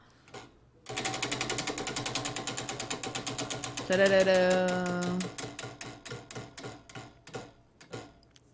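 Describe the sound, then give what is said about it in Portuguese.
A spinning roulette prize wheel ticks rapidly and steadily, then its clicks gradually slow and spread out until it stops, with a short tonal musical flourish rising over the ticking partway through. “pode girar então a nossa roleta.”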